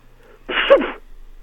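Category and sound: human body sound, sneeze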